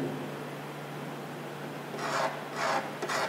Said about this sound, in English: Nails on a chalkboard. It's an annoying, spine tingling, it's a hard thing to hear.